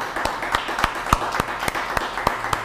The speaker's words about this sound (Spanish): Ahora un fuerte aplauso a todas las naciones. Les saludamos.